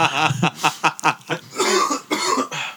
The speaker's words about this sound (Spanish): Qué gonorrea es la vejez, güey. no se ríe y termina tosiendo.